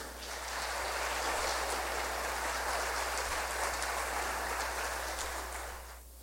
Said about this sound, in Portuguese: Quero um aplauso dos corajosos aí.